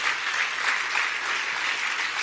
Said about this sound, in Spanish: Dale un buen aplauso de alabanza al Señor.